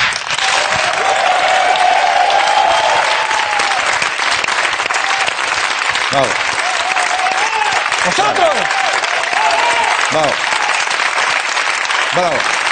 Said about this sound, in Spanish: Por favor, querido público, aplaudid de nuevo y volvamos a la normalidad.